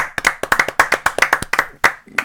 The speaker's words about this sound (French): il a pas eu droit aux applaudissements à Naiko Skate. des petits applaudissements quand même